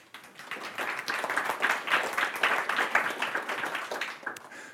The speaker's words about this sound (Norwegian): Gi henne en applaus.